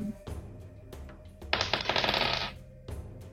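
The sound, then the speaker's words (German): Dice clatter and rattle across a hard surface for about a second, a dense burst of bright clicking that rises suddenly and then settles, heard alone; the dice are rolled for an Intimidation check. “Soll ich vielleicht irgendwie Intimidation würfeln oder so dafür?”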